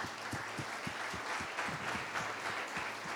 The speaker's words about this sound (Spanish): A la cuenta de tres, vamos a abrir nuestros ojos. Y vamos a darle un fuerte aplauso a cada una de estas personas. Uno, dos, tres. Un fuerte aplauso.